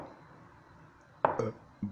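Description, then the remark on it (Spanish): A loud, low, croaky burp lasting about a third of a second, followed shortly by a brief softer gulp-like sound, with quiet background before and between. “La tengo con los eructos en este podcast.”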